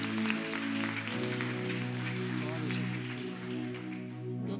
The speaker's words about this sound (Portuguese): Glória a Jesus. Salva de palmas.